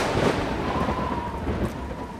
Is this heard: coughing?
no